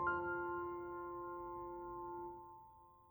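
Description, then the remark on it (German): A single doorbell chime at a house door rings out clearly after dinner, its bright tone sustaining for a couple of seconds before gradually fading away, with no voices present. “Nach dem Znacht läutet es an der Tür.”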